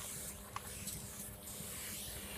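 A steady, pressurized spray hisses continuously for a couple of seconds, fairly loud, with a few brief bursts and clicks within the flow and no voices.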